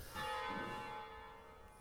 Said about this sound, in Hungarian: Harangozás. Harangozáshoz... De milyen király, remélem behallatszik. No way, hogy ne hallatszódjon be.